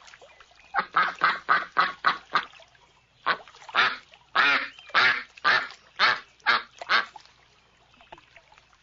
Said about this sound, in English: ducks quack.